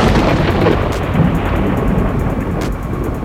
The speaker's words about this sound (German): Er dreht den Schlüssel und wie eine Rakete schießt das Schiff auf den See raus und genau in dem Moment donnert es laut vom Himmel oben ab.